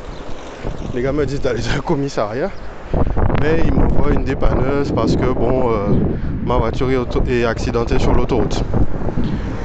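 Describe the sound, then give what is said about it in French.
Gusty wind buffets the microphone in a steady low roar, growing heavier partway through, while a man talks and laughs into the mic over it as his car is being recovered by a tow service. “Désolé pour le vent, je suis dépanné.”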